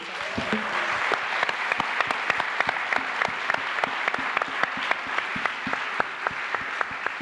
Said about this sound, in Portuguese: E hoje, nossa deputada maravilhosa. Vamos aplaudir a Áurea Carolina.